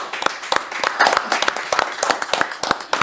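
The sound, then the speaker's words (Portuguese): A short burst of applause for the guests from a small group. Sharp, dense claps run steadily for a few seconds. It sounds loud, with no one talking over it. “Se você quer conferir, aplausos aí para eles.”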